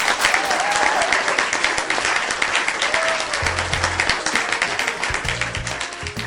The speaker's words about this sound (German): Ich bedanke mich und auch sicher im Namen unseres Publikums. Vielleicht gibt es da auch nochmal einen Applaus. Herzlichen Dank.